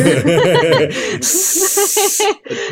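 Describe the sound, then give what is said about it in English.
A person vocalizes a mock boo at a villain, then lets out a long, loud hiss like a snake, followed by a short burst of laughter and a brief second hiss. “You were like, boo, boo. hiss.”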